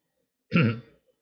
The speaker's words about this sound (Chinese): 嗯 突然间咳嗽。 嗯，咳嗽，喉咙不好。